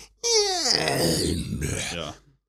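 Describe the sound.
A single loud vocal imitation: a high, wailing baby-like cry that slides down and roughens into a low, raspy wolf-like growl over about two seconds, then cuts off.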